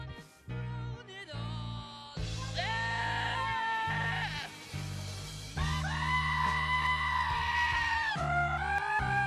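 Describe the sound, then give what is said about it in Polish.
Loud, drawn-out goat bleats repeat again and again over a steady musical backing, a classic piece of music edited with goat sounds, each wavering cry sitting right up front and almost replacing the melody. “ktoś tak bezcześci takie piękne klasyki właśnie kozami, tak jak ten tura, teraz usłyszycie”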